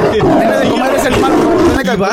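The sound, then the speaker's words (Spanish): A loud tiger roar rumbles steadily for about two seconds, thick and growling, with excited voices chattering underneath. “pero el tigre rugió”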